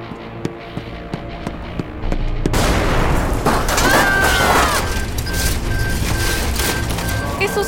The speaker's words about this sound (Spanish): No como una explosión. Más como una bola de fuego.